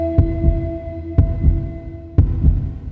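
A steady heartbeat thumps in a lub-dub rhythm, three paired low beats about a second apart, over a soft sustained hum. No one speaks.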